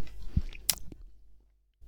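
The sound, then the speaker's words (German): Wet chewing with a few sharp lip smacks and squishy mouth noises as food is eaten into a microphone, then a brief pause before another smack at the end. No one speaks. “ja, aber wir essen das und schmatzen dabei in die, Ka in die, in die Kamera, ja, ins Mikro.”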